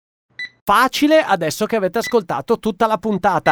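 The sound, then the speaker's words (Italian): A single short, very soft supermarket checkout scanner beep, the soft version used at an autism-friendly point of sale, sounds once, then a man begins talking right after it and keeps talking to the end. “È il beep, quello delle casse, ma in versione molto, molto soft, quasi assente, quello usato dagli amici della COP per eh, il punto di vendita autism ah, friendly.”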